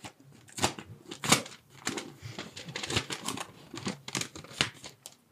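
Paper rustling and crinkling, with several short sharp tears and scrapes, as a slip of paper is pulled out of a small envelope. No talking.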